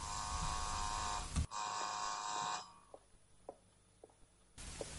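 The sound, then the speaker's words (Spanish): A loud, harsh electric door buzzer sounds in two long bursts with a brief break between, then goes quiet apart from a few soft clicks before buzzing starts again at the end. “Va hacia el salón, y desde allí mira de nuevo al muñeco cuando suena el timbre de la puerta.”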